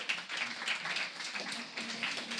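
An audience applauds, a dense, steady patter of many hands clapping that fills the whole moment without pause, heard at a moderate distance with no voices over it.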